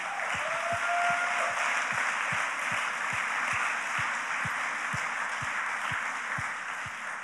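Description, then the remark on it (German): A church audience gives God sustained applause, a dense steady wash of many hands clapping at an even level for several seconds, with a regular low thump pulsing underneath like rhythmic beats. “Und jetzt wollen wir unserem Vater nochmal einen richtigen fetten Applaus geben.”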